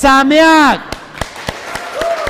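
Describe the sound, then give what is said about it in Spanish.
At a Sukkot festival celebration, a drawn-out voiced shout of the Sukkot greeting with a falling pitch, followed by a handful of sharp, fairly quiet hand claps in a steady rhythm, about three or four per second, as applause begins. “Aplauso fuerte.”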